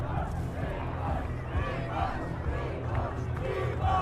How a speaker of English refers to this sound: The, the, the, the chorus of Primoz Primoz had broken out, echoing out across the valley.